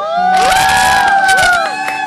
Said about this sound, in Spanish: ¿Están listos chicos? Sí. ¡Aplausos!